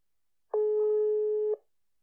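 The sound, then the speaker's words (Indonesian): A single steady electronic phone ringback tone sounds for about one second, loud and clear, as a call to an interview guest connects, with silence before and after. “Nah, siapakah dia? Mari kita telepon.”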